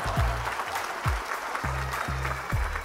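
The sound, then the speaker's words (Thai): A crowd applauds loudly and steadily, a dense crackling wash of clapping throughout, with deep thumping low tones pulsing underneath every half second or so. “ขอเสียงปรบมือดังๆให้กับอพิโซดนี้ด้วยครับผม”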